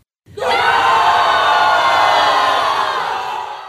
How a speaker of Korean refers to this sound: 그러자 백성들이 일제히 큰 함성을 지르기 시작했습니다.